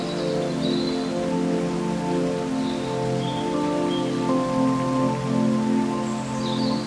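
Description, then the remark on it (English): A waterfall in a redwood forest: a steady, dense rush of falling water fills the scene without pause, constant, with a few faint bird chirps high above and no voices. “With each breath, let the sound of the waterfall and the beauty of the redwood forest seep deeper into your consciousness, filling you with a sense of peace and tranquility.”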